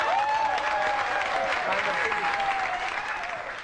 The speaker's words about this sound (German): Szenenapplaus.